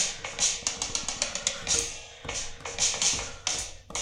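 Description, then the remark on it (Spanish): Quick, irregular hits on a drum kit with bright, hissy cymbal crashes and splashes, played loosely for a few seconds with no steady beat, as the drummer warms up and tunes the kit. “Y eso nada más ustedes escucharán solamente la batería, pero aquí estamos viendo magia.”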